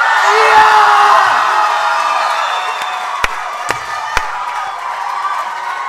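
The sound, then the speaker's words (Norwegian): A large live festival audience cheers and whoops loudly to vote for an entrant in a poetry competition, a dense wash of voices with a few shrill yells on top, plus three sharp claps or knocks near the end. “Så den som får høyest lyd av dere når jeg sier et av navna, den vinner.”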